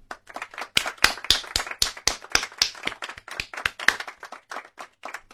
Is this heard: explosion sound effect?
no